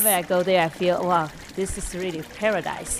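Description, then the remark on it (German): Steady rushing water from a clear blue-green mountain stream along the Sakadang Trail, in a side valley of a gorge, runs underneath a man's voice talking continuously, the gentle trickling wash staying in the background throughout. “Wenn man auf dem Sakadang-Pfad wandert, läuft man die ganze Zeit entlang eines klaren blaugrünen Bachs.”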